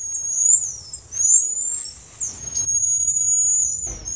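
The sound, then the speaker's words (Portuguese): Marmosets give high-pitched, long drawn-out whistling long-distance calls, several sustained tones in a row with gentle pitch sweeps, clear and fairly loud over faint low background rumble, with no one talking. “Que é o som do saguis, que está cada vez mais perto da gente, parece, né?”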